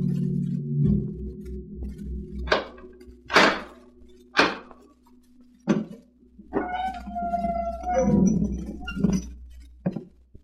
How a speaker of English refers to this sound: Once again, the keeper of the book has opened the ponderous door to the secret vault